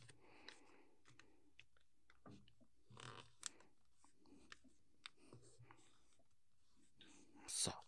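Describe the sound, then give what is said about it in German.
Paper being folded into a paper airplane, the tip folded back outward about two centimetres lower: soft rustles and crinkles come in scattered bursts, with a sharper, louder crisp rustle near the end. No one speaks. “Aber es wird schon wieder, denn wir nehmen jetzt wieder die Spitze und klappen sie wieder nach außen.”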